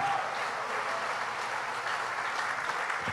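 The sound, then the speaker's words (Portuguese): A church audience applauds in praise of Jesus with dense, steady clapping from many hands, holding an even level throughout without building or fading. No voices come through over the applause. “Se é para Jesus, meu, dá uma salva de palmas para valer.”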